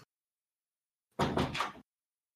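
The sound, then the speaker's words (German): A door swings shut with a short, full-bodied thud and a brief scraping rattle, lasting about half a second, with silence before and after. “Da geht die Tür zu.”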